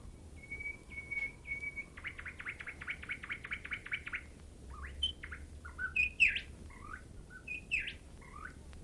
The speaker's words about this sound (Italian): Chissà che l'uccellino non canti per me. Possibile che non canti di giorno? Bell'uccellino, fa che io senta la tua bella canzone.